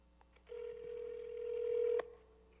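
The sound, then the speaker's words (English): A phone line tone sounds as a customer places a call from a phone: one steady, sustained electronic hum lasting about a second and a half, fairly quiet, then cutting off abruptly, with no one talking. “I'm going to be the customer calling from my phone.”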